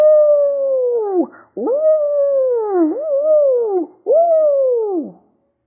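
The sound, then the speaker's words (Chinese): A person, hands cupped like a clam shell over mouth and nose, imitates an adult wolf's howl to a wolf cub: four long, loud, wavering howls in a row, each held steady and then sliding down in pitch at its end, with brief gaps between and no talking. “然后用双手做成蚌壳形，扣在口鼻上，模仿大狼的嚎声：“哦。”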